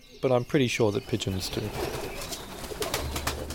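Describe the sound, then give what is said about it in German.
The speaker's own pigeons coo, a quick run of throaty, rolling calls in the first second, then a soft rustling, breezy background carries on after the calls fade. “Ich habe jedenfalls keinen Magnetsinn, aber ich bin mir ziemlich sicher, dass meine Tauben ihn haben.”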